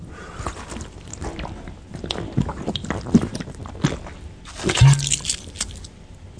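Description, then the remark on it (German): Someone drinks mineral water in a few wet sips and swallows, with soft gulping and mouth noises coming in uneven bursts, a slightly louder gulp near the end. “Aber das Trinken hört, hört man schon, oder?”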